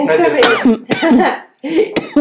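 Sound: coughing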